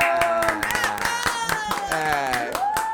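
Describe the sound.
Steady studio applause welcoming a guest onto a show, with dense, continuous clapping, fairly loud, mixed with voices and a sustained tonal sound layered over the claps.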